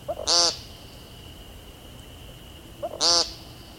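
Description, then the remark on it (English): Two loud, buzzy, nasal 'peent' calls from an American woodcock, spaced about two and a half seconds apart, each preceded by a soft throaty note, with a steady faint hum in the background. “Their brown and black speckles camouflage them perfectly until they sing, which sounds less like singing and more like yelling the word peent over and over.”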